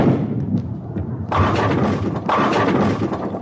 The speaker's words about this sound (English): See, it broke the sound barrier, so like you heard the first one and then, yeah.